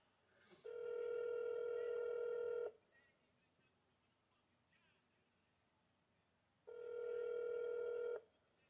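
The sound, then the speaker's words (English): Two long, steady telephone keypad tones in an automated phone menu, each lasting a couple of seconds, separated by a quiet stretch with faint line noise; the tones are clear and fairly loud. “To hear field office hours and directions, press or say, oh.”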